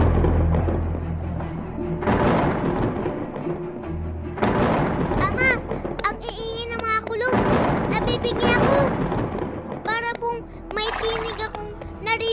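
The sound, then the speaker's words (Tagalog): Deep thunder rolls and rumbles in several heavy swells, loud, signalling that heavy rain is coming, while a child and other voices speak over the storm. “nanginginig sa langit. Si Yahweh po! Oo nga, anak. Hudyat dyan na may paparating na malakas na ulan.”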